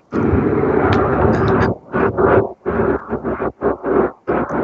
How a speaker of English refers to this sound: There are um, there's a series of planes. Oh my god, uh, those are prop if, planes.